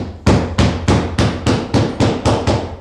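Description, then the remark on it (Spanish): Someone pounds hard on a door to demand it be opened in the name of the law, about nine heavy, booming thuds in a fast, steady rhythm, each blow loud and sharp with no voices in between. “¡Abran a la justicia! ¡O echo la puerta abajo!”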